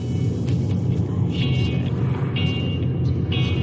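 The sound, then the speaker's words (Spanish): A taxi's engine rumbles steadily from inside the moving car, a continuous low drone with faint high whines drifting in and out, and no one speaking. “Van en taxi.”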